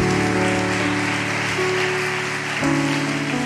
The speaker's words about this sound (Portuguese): Dá um forte aplauso ao Senhor, em nome de Jesus.